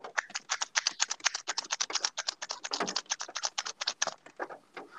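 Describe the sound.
A quick, steady stream of wet clicking pops made with the cheeks, dozens of them in rapid rhythm, fairly soft, with no talking.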